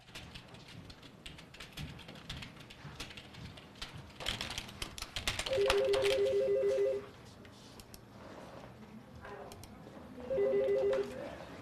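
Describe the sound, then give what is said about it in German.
A telephone, used for contact with trading partners, rings twice in a busy office of a foreign-trade company, each ring a loud sustained electronic trill, with keyboard typing and faint background activity between the rings. “Der Kontakt zu ihren Handelspartnern erfolgt fast ausschließlich über Telefon, Fax oder E-Mail.”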